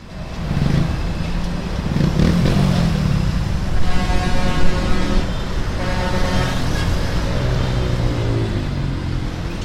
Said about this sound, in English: Even just the sound of the street, with all the cars zipping by, will give you an idea of how unsafe it is to be on the sidewalks around our schools. Have a listen.